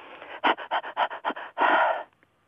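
A person demonstrates a measured panting breathing exercise, panting in quick, even bursts, about eight short breaths in a steady rhythm, then finishes with one longer, forceful exhale. Clear, with no talking.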